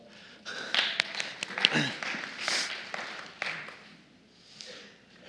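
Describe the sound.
A short round of applause from a small group: a scattered burst of sharp claps that swells for about three seconds and then tapers off, with faint murmuring voices underneath.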